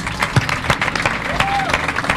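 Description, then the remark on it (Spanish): An audience applauds the mental health columnist on an Argentine radio show, steadily for about two seconds. A dense crackle of many hands clapping at once, with a brief rising and falling whistle-like tone and murmuring voices mixed in. “Voy a pedir un aplauso para él otra vez.”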